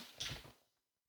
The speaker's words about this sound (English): I don't know if you heard that, but that was my dog. He sniffed the microphone. I hope he didn't get any moisture on there.